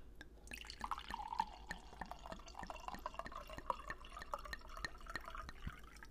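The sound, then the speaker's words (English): Wine from a screw-top bottle glugs steadily into a glass for several seconds, the gurgling pour fairly quiet, its pitch rising slightly as the glass fills, with no talking. “I, am pretty excited for this healthy glass of wine.”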